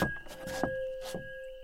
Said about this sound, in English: The window pounds the wood at the top of its run.